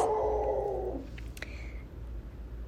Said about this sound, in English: And excuse my dog outside.